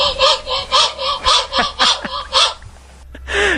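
A crow imitates a handsaw it heard someone use, with a quick, steady series of harsh rasping strokes, loud, about eight in a row, followed by a short gap and one more raspy call.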